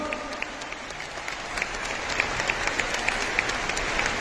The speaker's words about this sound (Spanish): Un aplauso para la Virgen María, un aplauso para el Señor.